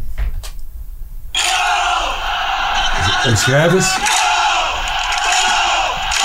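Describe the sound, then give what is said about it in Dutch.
A dense crowd of hard-core Panathinaikos football supporters in a stadium roars and chants in unison, loud and continuous after a brief quieter start, with shouted voices rising and falling over the steady wall of noise. “Dus, in de harde kern van uh, Panathinaikos. We staan er middenin.”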